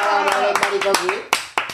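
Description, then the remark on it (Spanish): Several sharp, irregular hand claps ring out, brief applause on a radio show for listener Belén Maricoqui, over a voice that keeps talking or laughing underneath, with the last couple of claps standing out loudest. “¡A la Belén Maricoqui, un aplauso. Un aplauso”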